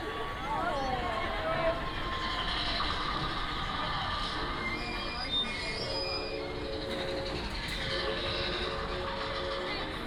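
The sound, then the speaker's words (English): A rickety train rattles steadily along the tracks, with dense clattering noise and high metallic squeals of wheels grinding throughout. “say, that train didn't sound real reliable. Sounds dangerous.”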